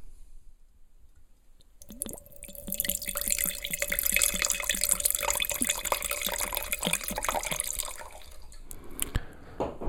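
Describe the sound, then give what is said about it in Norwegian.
A biodynamic Syrah red wine pours into a glass in a steady gurgling stream, with quick bubbly glugs and a rising liquid tone, lasting about six seconds before tapering off into a few faint drips. “Og denne gleder jeg meg så lenge til å drikke, så nå må jeg helle oppi glasset, og så skal vi fortsette å prate.”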